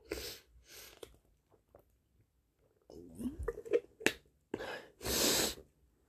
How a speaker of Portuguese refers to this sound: E eu vou tomar um gole d'água, pera.